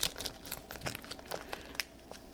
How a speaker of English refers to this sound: This bag is actually too hot to hold. I'm going to cut the corner off with a pair of scissors